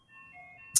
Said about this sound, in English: is that an ice cream truck you can hear that yeah yeah it's going out outside here oh that wow. just made me so happy.